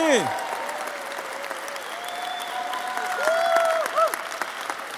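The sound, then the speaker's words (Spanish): An audience applauds the Lord in a dense, steady wash of clapping that lasts throughout, with voices calling out and cheering over the claps. “Oh, dale un fuerte, fuerte aplauso al Señor.”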